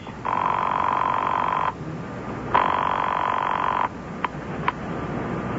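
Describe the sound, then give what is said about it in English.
An old telephone bell rings twice in long, steady bursts with a pause between, followed by two quick clicks like the receiver being handled, over a faint background hiss. “And I reached for my phone, which by now, thank heaven, was not in use.”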